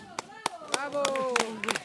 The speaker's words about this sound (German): Nach dem Kraftakt werden die Letzten mit Bravo und Beifall begrüßt.